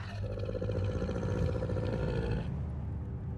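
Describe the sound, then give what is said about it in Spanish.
A harsh, guttural, roaring scream that sounds inhuman, loud, with a dense rumbling low end and a gritty texture, sustained for a few seconds before cutting off. “Y son gritos culturales, gritos que parecen salidos de una garganta inhumana.”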